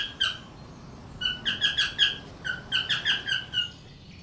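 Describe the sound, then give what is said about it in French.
Cockatiel calls: a single sharp chirp, then two quick runs of bright, repeated whistling chirps, each a short rising-falling note, fairly loud over faint background hiss. “Regarde cette petite perruche. Ce sont des perruches calopsites.”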